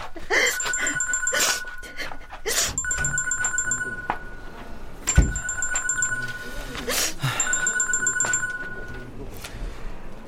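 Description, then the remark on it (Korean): A phone rings in repeated electronic bursts, a bright warbling ringtone pattern recurring about four times, with some background voices and clatter underneath. “저 전화 좀 받고 올게요.”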